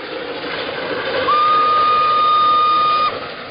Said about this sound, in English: The 999 was named after the Empire State Express number 999, which was an American steam locomotive that famously set a world speed record of 112.5 miles per hour in 1893.